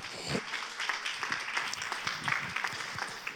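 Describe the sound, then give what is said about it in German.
An audience applauds five volunteers, many hands clapping in a dense, continuous patter with a few sharper individual claps standing out, moderately loud throughout. “Ein Applaus für unsere fünf.”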